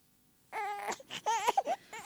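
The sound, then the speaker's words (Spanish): Several newborn babies wail and whimper in a theatre, their high, wavering cries overlapping in uneven bursts after a brief silent start. “Adornada con numerosas cunas con recién nacidos. El marido lleva un niño en cada brazo y hay bebés por todo el teatro.”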